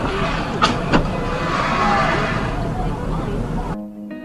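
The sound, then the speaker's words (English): Two quick, dull thumps land close together early on, a police officer's body hit by an accelerating vehicle and flying over its side, over steady road and crowd noise with indistinct voices murmuring in the background. “And that that thump you heard was his body flying over the side of the vehicle.”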